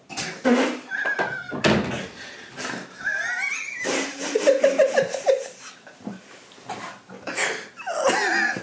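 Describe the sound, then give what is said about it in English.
Repeated heavy pounding on a door, loud irregular thuds spread across several seconds, with bursts of laughter and voices mixed in between the knocks. “just gonna keep pounding on the door.”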